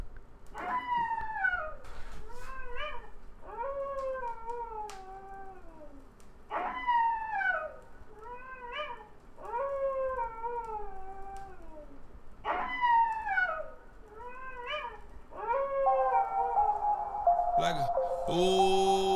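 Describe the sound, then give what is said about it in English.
Coyotes howl and yip in a chorus in a residential neighborhood, with repeated wavering calls that slide downward in pitch, several voices overlapping over about twenty seconds, followed by a brief louder burst of noise at the end. “Told you I have coyotes in my neighborhood”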